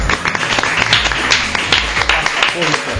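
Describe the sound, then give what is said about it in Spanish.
An audience applauds steadily for about three seconds at a weekly current-affairs quiz show, a dense, loud wash of many hands clapping at once for the host's colleague, with some voices mixed in underneath the clapping. “Aquí aplaudimos por todo porque es gratis.”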